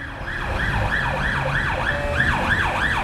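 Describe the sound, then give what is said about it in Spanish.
An ambulance siren wails in rapid rising and falling sweeps, loud, over a low rumble of road traffic, with no voices. “Un niño de 8 años de Torrejón de Ardoz, Jaime Vaquero, muere en la ambulancia a camino del Hospital de la Paz.”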